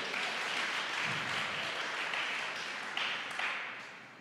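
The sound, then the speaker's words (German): A church audience applauds steadily to welcome the church's campus in Marzahn, a dense wash of many hands clapping at once that holds an even level throughout before easing slightly at the end, with no voices over it. “Jawohl, gebt Ihnen einen Applaus.”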